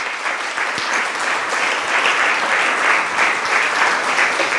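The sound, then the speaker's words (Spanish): A crowd bursts into sustained applause for the lives of those men, a dense, steady patter of many hands clapping at an even loudness for several seconds, with no voices rising above it. “Denle un aplauso por la vida de esos hombres.”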